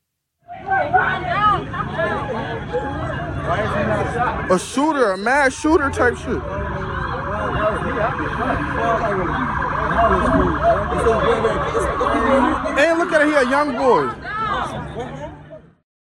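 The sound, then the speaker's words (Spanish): Many people scream, wail and sob at once in a dense, chaotic crowd after a shooting, with bodies lying on the ground, recorded by a witness. Shrill, wavering cries rise over constant loud babble for about fifteen seconds, with a vehicle rumbling beneath. “En el suelo había cuerpos inertes y gente que gritaba o que lloraba. Un testigo grabó ese instante.”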